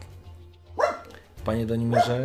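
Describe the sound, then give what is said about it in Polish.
A dog barks a couple of times far away, outside in a farmyard where it is running around, with short sharp yaps overlapping a man's speech; the barking and talking blend together over a low background hum. “Gdzieś na zewnątrz sobie biega i szczeka, bo pewnie jakieś dzikie zwierzęta przechodzą w jego zasięgu.”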